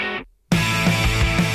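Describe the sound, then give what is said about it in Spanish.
After a brief fade and moment of silence, loud 1990s-style power pop bursts in, with thick distorted guitars, fat bass and a driving, punchy beat filling the mix. No one is talking. “La frescura del power pop noventero en todo su esplendor, melodías preciosas, ritmos vertiginosos, guitarras saturadas y bajos gordos.”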